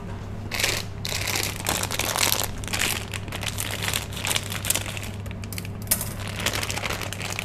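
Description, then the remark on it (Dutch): Crinkly plastic rustles and crackles in bursts as scissors cut open a bag while cooking, with a steady low electrical hum underneath and no talking. “Ik heb een schaar.”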